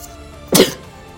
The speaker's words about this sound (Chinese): 啊，不好意思，打个喷嚏啊